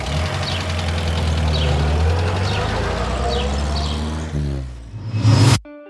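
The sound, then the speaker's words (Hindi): A rattly old jalopy car engine idles with a steady, throbbing low rumble, then briefly revs louder near the end before cutting off abruptly into silence. “इस खटारा गाड़ी में भी घूमने की जरूरत नहीं होगी”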